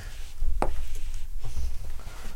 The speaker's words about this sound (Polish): Kliknąłem e, taki napis, e, że jesteśmy w zapisie, żeby na zewnątrz każdy A. wiedział, żeby nie wchodzić.